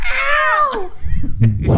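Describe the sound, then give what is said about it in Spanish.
A man improvises a drawn-out, falling-pitch imitation of a cat's meow, fairly loud, in a film scene. It is followed by a moment of muffled, low rumbling noise. “hace el ruido del gato él.”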